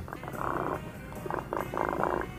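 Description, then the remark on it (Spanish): A person imitates a cat's purr with a low, rumbling, rolling sound in a few steady bursts, moderately loud, with no words spoken. “O sea, como que este Como que, o sea, como que el gato lo está meloseando a uno.”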